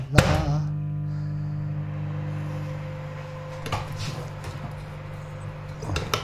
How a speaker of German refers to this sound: Jetzt stelle ich den kurz in die Mikrowelle. Also die Tasse, ja. Die Tasse stelle ich kurz in die Mikrowelle.